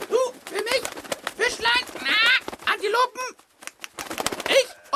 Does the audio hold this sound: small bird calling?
yes